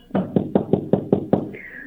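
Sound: knocking on a door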